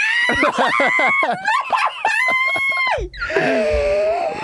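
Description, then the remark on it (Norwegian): A person lets out a loud, high-pitched surprised scream in a series of rapid shrieking bursts, then a sustained squeal that drops into a lower, breathy wail. “Hvorfor det skriket der?”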